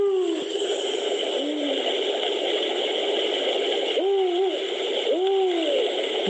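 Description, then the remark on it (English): An owl gives its 'who are you' call, a short hoot followed by rising, wavering phrases, over a steady hiss of background noise with no talking. “it's like a three-way call where they sometimes they have a call woo, and then they have this other one who are you, who who are you, it's like we say, Who are you by itself or sometimes in duet.”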